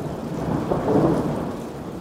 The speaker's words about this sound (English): I love thunderstorms. The sounds, the flashes of light the ground rumbling.